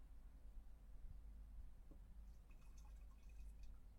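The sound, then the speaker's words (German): Liquid from a dosing chamber (10 millilitres per 1 litre of water) is poured steadily through a strainer into a sprayer, a quiet continuous trickle with faint dripping over a low background hum, and no one speaking. “Einfach durch den Sieb einfüllen”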